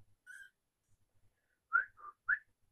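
A pet bird gives a short whistle, pauses, then lets out three quick whistled notes in a rising-falling pattern, clear with a quiet background.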